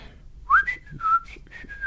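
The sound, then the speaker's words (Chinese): Someone whistles a short Christmas tune on leaving a courtroom: a handful of clear, fairly high notes, some held and some sliding between pitches, with small breathy gaps and no talking. “然后我一出了法庭，口里忍不住的吹口哨”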